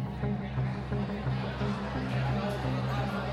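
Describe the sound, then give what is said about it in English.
A steady, dense hubbub of many voices talking over one another as dozens of students crowd the school corridors at lunchtime, catching up with their friends, with no single speaker standing out. “Dozens upon dozens of students choked the corridors, eagerly reveling in the opportunity to catch up with their friends and ram some food down their throats.”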